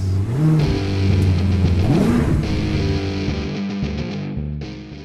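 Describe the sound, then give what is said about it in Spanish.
A loud engine revs, its pitch climbing in two quick surges before settling into a steady, throaty idle with a distorted, buzzy edge; no voices are heard. “¡Arrancamos motores!”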